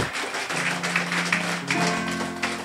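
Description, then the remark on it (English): A standing church audience claps for the Lord in a steady, dense wash of hand claps that holds at a fairly loud level throughout, with low sustained musical tones humming underneath. “Come on, just stand to your feet, everybody, and just give the Lord a big hand clap.”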